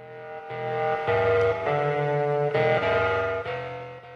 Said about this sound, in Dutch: Je hoort hier …, maar wel als onderdeel van …. … dus, met het nummer ….